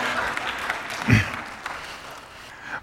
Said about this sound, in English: Oh, of course, you're going to applaud.